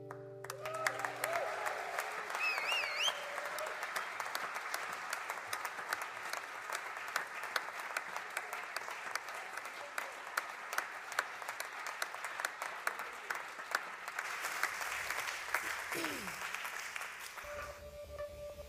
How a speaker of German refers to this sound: Applaus für dich, mein Lieber.